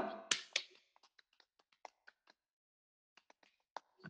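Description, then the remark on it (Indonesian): Indonesian Pramuka scout clap (tepuk pramuka) in a three-three-seven pattern, done on Scout Day: two loud claps, then a quick run of lighter claps in a patterned beat, a short pause, and a final burst of claps ending on a louder one. No voices. “Tepuk pramuka.”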